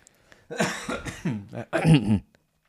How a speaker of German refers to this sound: ich muss schon husten.